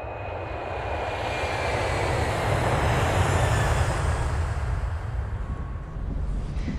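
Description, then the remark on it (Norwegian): A loud, steady airplane engine drone fills the whole stretch, a broad roaring rumble with a faint whine on top, swelling slightly in the middle with no voices. “Jeg, jeg tror det er på tide å fly.”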